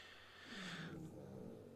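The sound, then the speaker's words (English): A dog snoring softly, a low rumbling, purr-like drone with a breathy hiss, steady through the short moment with no one talking. “You can hear the dog snoring so bad.”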